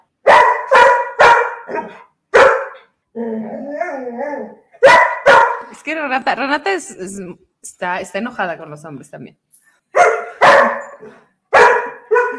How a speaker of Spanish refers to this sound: Es que yo ya tengo bloqueado el ladrido de mi perrito, pero ustedes no tienen por qué vivir esto.